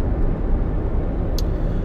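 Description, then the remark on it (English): Steady low engine rumble from a car sitting in traffic, a constant droning hum with a brief hiss partway through and no voices. “This is a DJ Icon Entertainment podcast where we talk about different topics while we sit in traffic”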